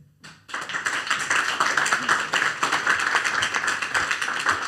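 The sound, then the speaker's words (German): An audience, those who believe the story just told, claps steadily together, a dense, continuous patter of many hands that starts abruptly after a brief pause and holds at an even, fairly loud level. “Wer an die Geschichte glaubt, der klatscht jetzt.”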